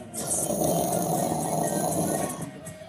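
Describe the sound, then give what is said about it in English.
A voice imitates the deep, rough rumbling heard about ten seconds before an earthquake, a lion-like growl held steadily for about three seconds before it cuts off. “you know, like a lion, like a lion man yeah.”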